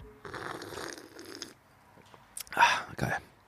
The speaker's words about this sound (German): Lecker. extra laut geschlürft, damit ja. ihr es auch hört.